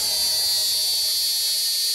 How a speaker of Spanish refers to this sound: Hasta cuando cantan las chicharras.